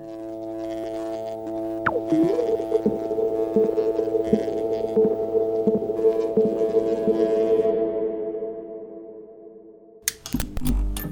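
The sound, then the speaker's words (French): A steady, resonant buzzing drone hums for about ten seconds, layered and slightly wavering, with a brief swooping tone early on, then cuts off into a few sharp crackling clicks. It is the droning introduction of a song. “Comme dans le morceau … du groupe … son bourdonnement introductif qui dénonce la société de consommation comme une religion.”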